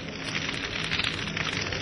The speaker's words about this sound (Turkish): Bu ateş dağı karşısında insanlar gittikçe artan kızıllığın ve ateşin karşısında geri çekiliyor. Babil'in semaları duman ve ateşin koruyla kavruluyordu.